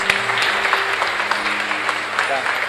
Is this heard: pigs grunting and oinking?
no